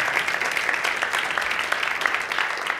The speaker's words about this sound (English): So, hallelujah. Let's give uh, the Lord a hand of applause for all they have done.